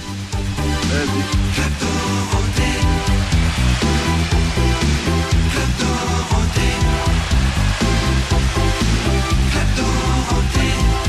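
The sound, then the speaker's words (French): The Club Dorothée TV show theme song plays, loud and steady throughout, with a bright full-band arrangement, a driving regular beat and frequent chord changes, and no talking over it. “Voilà, voilà, voilà, c'était un petit bout du Club Dorothée, ah, le générique, c'était pour toi”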